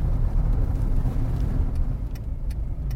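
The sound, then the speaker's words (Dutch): A car drives past, its steady low engine and tyre rumble holding loud throughout, with faint clicks and ticks scattered over the top. “Wacht, we moeten oh. voor die auto.”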